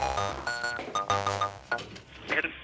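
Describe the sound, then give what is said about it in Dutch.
A mobile phone rings with a short, bright electronic melody, its tones rising and falling in quick bursts, heard fairly clearly for a few seconds, signalling an incoming call from the owner's mother. “Mijn telefoon gaat.”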